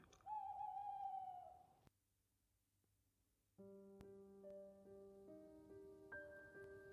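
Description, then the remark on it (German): A long-eared owl lets out one loud, drawn-out wavering screech at night, followed by a brief hush and then steady, sustained musical tones. “Doch das unheimliche Kreischen der Waldohreule soll seitdem her in diesem Teil der Welt des Nachts besonders laut zu hören sein.”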